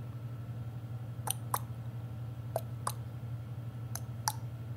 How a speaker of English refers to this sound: No, these are very, very slow, and they seem not quite the same as the hoof, like what you typically hear. Slightly lighter, perhaps,